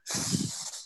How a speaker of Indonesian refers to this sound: ini suara napas siapa ya mohon maaf nih dari tadi kayaknya kalau didengar-dengar sih ya kayak napasnya aja caper jadi hmm.